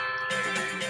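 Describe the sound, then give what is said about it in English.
A bright, shimmering video game pickup chime for collecting a thunder egg rings out for about a second, a steady tonal jingle that swells slightly after its start, with no talking. “That's the sound of getting a thunder egg.”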